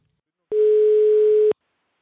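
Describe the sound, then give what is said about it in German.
A single steady telephone ringing tone of a call placed from Ravensburg to someone in Oldenburg sounds for about a second, clear and fairly loud over a faint hiss, with silence on either side and no voices. “Es klingelt.”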